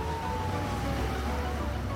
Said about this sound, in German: Polizeieskorten sorgen mit Blaulicht und Sirenen für freie Fahrt.